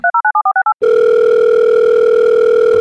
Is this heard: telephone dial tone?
yes